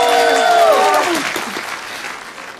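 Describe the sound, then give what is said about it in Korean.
An audience claps in a dense, steady patter that gradually tapers off, with a brief vocal sound rising over the applause at the start. “잘 못해도 애교로 봐주세요. 네, 자 박수.”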